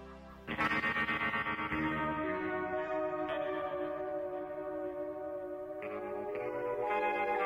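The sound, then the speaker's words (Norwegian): A pop song from a 2012 album by a reality TV star plays loud and steady, with sustained layered synth-like tones drenched in effects, distortion and chorus shimmer, kicking in after a brief quieter start. No one talks over it. “ga ut et album i 2012 som heter ….”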